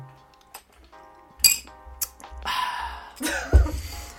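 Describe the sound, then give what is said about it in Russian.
Glasses of children's champagne clink together a couple of times with bright, ringing tones, followed by a rustling, fizzy hiss and a soft thump near the end, with no talking. “Теперь у нас в руках по бокальчику замечательного детского шампанского.”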